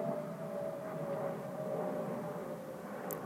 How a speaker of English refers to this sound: I don't like the sound of planes. I really don't like the sound of planes.